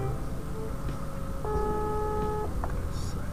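A telephone tone sounds once for about a second, steady and fairly clear, as a phone call is placed to someone, over a low murmuring background with a few faint clicks around it.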